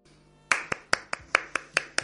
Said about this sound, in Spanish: Con este aplauso, además, pues eh, se lo enviamos a esta persona con todo nuestro ánimo para que ese, ese bache o ese asunto que la tiene un poquito así, a ver, que, que le anime.